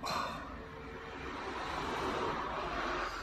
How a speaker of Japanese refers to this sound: 結構ね、ここね、車が結構走るんですよ。車が結構走ってて、車の音とかね、聞こえてると思うんですけども。えー、外じゃないのでね、あのー、あ、こいつ外で話してんのかって思われるかもしれないですけども、外じゃないのでね。